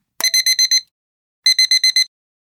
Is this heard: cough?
no